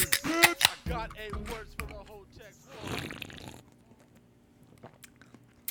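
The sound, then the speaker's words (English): Beer cans snap open with sharp metallic cracks near the start, a voice talks briefly, then a second can pops with a short fizzing hiss before a quiet tail. “That, my friends, is the sound of a couple delicious beers being cracked”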